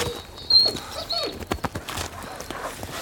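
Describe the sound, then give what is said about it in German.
A dog whimpers in short, high whines, mixed with a few sharp thumps and scrabbling as it jumps down, with no talking. “Wenn der Hund nicht bei drei da runter ist.”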